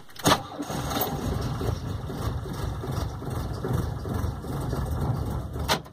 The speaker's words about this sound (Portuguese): Eles colocaram no carro para levar para o quartel e o motor do carro não ligava de jeito nenhum.